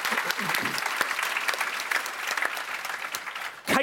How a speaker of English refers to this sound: A round of applause